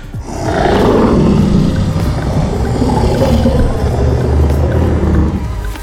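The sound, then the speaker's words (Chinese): A dinosaur roar sound effect played from Latte's speaker: a deep, rumbling, sustained growl that swells and holds for several seconds, loud throughout, then tapers off at the end. No voices. “突然间呢，Latte 呢播放出了一个声音哦，哎，是恐龙的吼叫声哦。”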